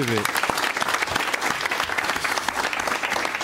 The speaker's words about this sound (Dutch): Geef hem maar een applaus.